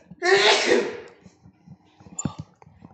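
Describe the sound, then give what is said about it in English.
A single loud sneeze bursts out with a sharp, breathy explosion after smelling a limited-release product, followed by quieter mumbling and shuffling sounds. “I'm gonna sneeze.”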